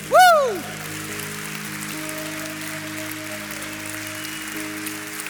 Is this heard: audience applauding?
yes